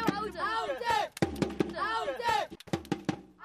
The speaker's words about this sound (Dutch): Ja, voor de wedstrijd knalde vuurwerk omhoog en